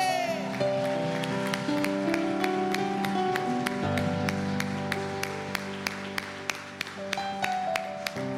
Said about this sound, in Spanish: Si alguien lo cree, denle un aplauso a Dios.